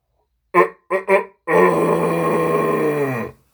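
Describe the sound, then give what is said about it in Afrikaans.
A voice imitates the roar of a chicken as big as a T-Rex, loud: three short, gruff clucks, then one long, sustained growling bellow that holds steady before cutting off. “Maak daai hoender.”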